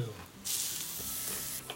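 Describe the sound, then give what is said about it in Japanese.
Store-bought meat sizzles on a barbecue grill under the eaves on a rainy day, with a steady, bright hiss that swells suddenly and holds for over a second, with a small pop near the end; no one speaks. “お願いダーリン軒下BBQ”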